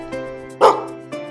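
A dog barks three times in about a second, with a loud, sharp bark in the middle and softer ones before and after, over a steady tonal hum.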